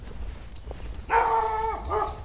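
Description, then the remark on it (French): The speaker's dog, Woody, barks: one drawn-out, tonal bark followed by a shorter second one, over a low outdoor rumble with no one talking. “Ah, mon chien qui aboie.”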